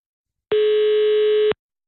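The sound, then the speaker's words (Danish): A telephone dial tone sounds once as a steady, mid-pitched hum lasting about a second, then cuts off; a short faint click follows. No one speaks. “Så ringer jeg igen.”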